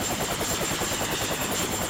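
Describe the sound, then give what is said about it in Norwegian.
A helicopter used to dump fire-retardant and radiation-absorbing material such as sand and clay onto a burning nuclear reactor flies by, its rotor blades thumping in a steady rapid rhythm over a continuous engine whine, loud and unbroken throughout with no voices. “For å stanse brannen ble helikopter benytta til å dumpe ca. 5000 tonn av brannhemmende og stråleabsorberende materiale som sand og leire bort eh, bordforbindelse, polymere og blyholdig sement over reaktorene, og på bygningstaket ved sida av reaktoren”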